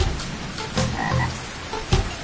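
Frogs croak in a dense, continuous chorus, with rough pulsing calls overlapping throughout and a couple of louder croaks standing out, one near the end. No one speaks.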